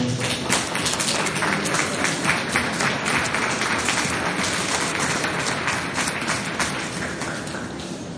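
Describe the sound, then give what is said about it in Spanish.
Sustained audience applause for barista champions at a coffee event, a dense steady roar of many hands clapping at once, fairly loud and even throughout without any talking over it. “Un aplauso, por favor.”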